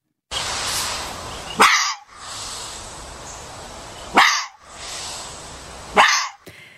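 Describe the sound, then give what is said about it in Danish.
Foxes barking three times at roughly even intervals in Klitmøller on the Danish west coast, each bark sharp and fairly loud, over a steady hiss of background noise like wind outdoors. “Ræve.”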